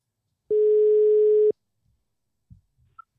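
A single steady telephone ringback tone, heard while a call is placed from the C-Radio studio, sounds for about one second, loud and clear, followed by a short pause and a couple of faint clicks.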